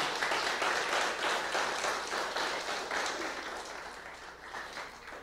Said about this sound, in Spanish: Dale un fuerte aplauso al Señor, amén.